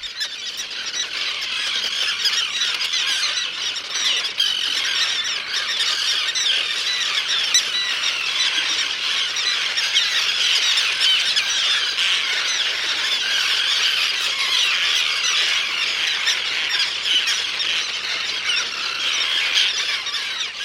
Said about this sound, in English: during their annual nest count of common terns and the endangered roseate tern. Faulkner is located off Guilford, Connecticut, in Long Island Sound. It's one of the tern's last safe retreats. No wonder their cries sound so angry.